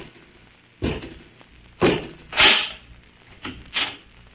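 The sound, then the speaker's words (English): A door is opened by Robot 2, a mechanical man servant, producing about five loud, abrupt clunks and rattles at uneven intervals, each fading quickly, with no voices present. “Robot 2, open the door.”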